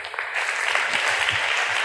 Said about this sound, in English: Our first one, coming on out. Please give her a warm round of applause, folks.